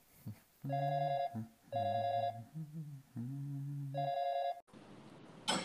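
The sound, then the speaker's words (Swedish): A phone's ringback tone repeats in steady electronic bursts with short pauses between, loud, then cuts off abruptly into faint line hiss as the call connects. “Ja, får vi se om hon svarar idag då.”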